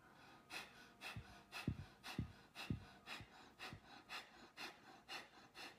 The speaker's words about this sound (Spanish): Y um, ese pranayama eh, es eh, inhalación y exhalación activa. Todo es por la nariz. Cuando exhalas, oprimes ombligo, ano y genitales. Y cuando inhalas, lo inflamas.